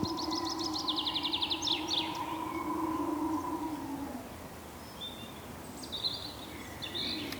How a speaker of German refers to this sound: Man hört ab und zu den Kuckuck und viele andere Singvögel.